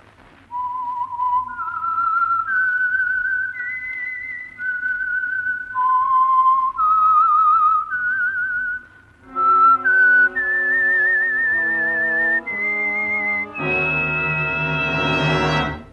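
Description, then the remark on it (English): A lone whistler carries a slow, eerie melody of sustained notes, then orchestral instruments join and swell into a fuller, louder passage by the end. It is the whistled theme that identifies the Signal Oil radio program The Whistler. “And for Sunday evening listening pleasure, the signal to listen for is this whistle that identifies the signal oil program, the Whistler.”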